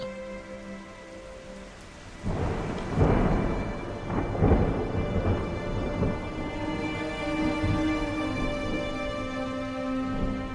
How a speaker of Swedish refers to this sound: Som om någon från Hollywood regisserade händelseförloppet så flög den mörkaste storm som någonsin synts i Jonestown in över staden.